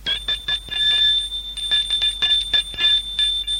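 A loud electric doorbell rings at Eva's apartment for several seconds, a shrill, high metallic tone buzzing with a rapid rattling pulse and a few brief breaks.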